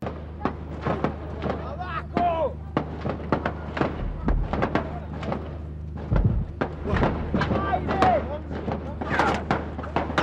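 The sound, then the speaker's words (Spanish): A rapid, sustained burst of gunfire, dozens of sharp shots cracking in quick irregular succession, loud, with voices faintly audible beneath the barrage. “Se escucharon 170 disparos.”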